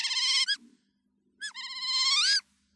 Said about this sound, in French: mais de toute façon, honnêtement, si jamais je tombe face à face avec une loutre, bah, rien qu'à l'entendre, je serais pas rassuré. On écoute un peu. Là, il faut dire qu'elle est contente en plus